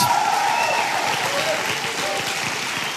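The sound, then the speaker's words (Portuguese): An audience claps steadily, a dense, continuous patter of many hands that stays fairly even in loudness for the whole stretch, with a faint murmur of voices mixed in. “Essas palmas não estão muito adoradoras hoje.”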